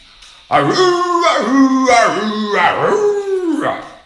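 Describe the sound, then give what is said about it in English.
A human voice imitates a dog howling: loud, drawn-out wails that rise and fall in pitch, broken into a few wavering swoops over several seconds. “Letting out a sound something like lonely, lonely, lonely, lonely. And I would join in.”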